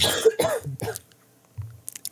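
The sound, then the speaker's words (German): Three harsh, raspy coughs come in quick succession, fairly loud, followed by a short pause and a faint throaty rumble. No one speaks. “Mal abgesehen von, von den, wir haben ein bisschen Husten.”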